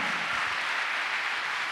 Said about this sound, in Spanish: Dale un aplauso a Cristo, a su nombre sea la gloria.